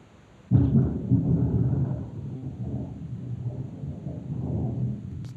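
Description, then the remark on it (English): A sudden crack of thunder breaks out during a storm at a house, followed by a deep, heavy rumble that rolls on for several seconds before slowly easing, loud with no voices. “No, that's thunder.”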